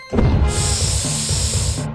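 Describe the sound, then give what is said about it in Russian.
A loud, steady hiss of the snakes woven into Spidola's hair rises over a low, droning musical backing, holding for over a second before cutting off as the music continues. “Косы змеи шипите, медведя душите.”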